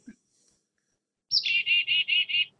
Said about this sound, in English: It's crazy how complicated their call system is. They so and and they use something called the chickadee call. Here I'll play one.